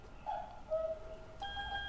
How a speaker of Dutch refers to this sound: Op de achtergrond mijn koekoeksklok. Dat is even wennen, die moet ik uitzetten als ik ga podcasten.